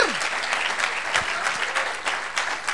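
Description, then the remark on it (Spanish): An audience breaks into sustained applause for the Holy Spirit of God, a dense, steady clatter of many hands clapping at once with scattered sharper claps standing out and no voices on top. “Démosle un aplauso al Espíritu Santo de Dios.”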